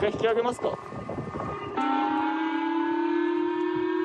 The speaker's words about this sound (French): 8 heures ce matin, jour férié au Japon, ces pêcheurs sont surpris par les sirènes d'alarme.